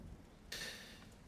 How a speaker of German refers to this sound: Ihr hört im Hintergrund Regen und Gewitter. Denn das ist gerade was. Draußen außerhalb der Mauern tobt. Ihr seid in einem Gebäude.